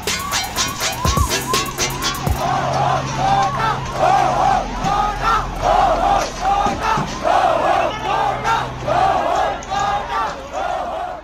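A large crowd shouts and chants in loud, rhythmic bursts, many voices roaring together, with a siren-like tone wailing underneath at times.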